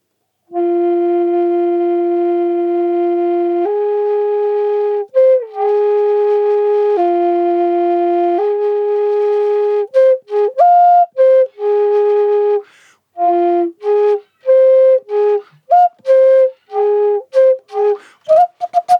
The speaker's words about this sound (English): Yeah, and he made all these. Um, just like hundred percent customized flute right there. Hmm. It's cool too because uh, you'll see it in a moment, but there's two channels shotgun. Mm-hmm. You can play uh, one side or both.